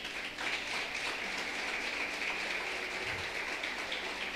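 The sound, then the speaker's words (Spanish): An audience applauding an elderly grandmother who has been asked to stand up, a dense, even wash of many hands clapping at moderate loudness that holds from start to finish with no voices. “Un aplauso a la abuela.”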